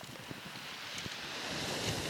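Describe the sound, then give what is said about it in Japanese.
Steady strong wind buffeting a microphone outdoors on a stony seashore, a broad rushing roar with low thumps and gusts that swell slightly toward the end; the sea is fairly calm. “干風が強いんで今ももしかしたら風の音が入っちゃってるかも”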